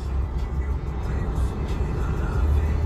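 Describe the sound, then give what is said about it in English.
An Alfa Romeo car engine hums in a steady, low rumble throughout, fairly loud, with no clear revving or changes in pitch. “But um this car right here, this is an Alfa Romeo.”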